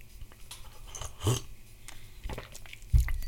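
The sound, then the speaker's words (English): Someone takes a short slurping sip of hot tea, followed by a soft knock like a cup being set down, amid otherwise quiet. “Let me sip this tea.”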